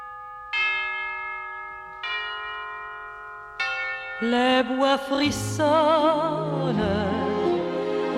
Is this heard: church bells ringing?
yes